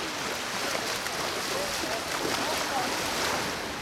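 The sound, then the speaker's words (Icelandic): Steady, full roar of surf mixed with gusting wind at a beach at Nauthólsvík, where a group of five women swim in the cold sea on a windy day; loud throughout, with faint voices barely rising above the rushing water. “Það er fríður hópur fimm fungulega konur stinga sér til sunds hérna í öldu rótinu við Nautalsvík blæst aldrei, aldrei svona nabast í dag.”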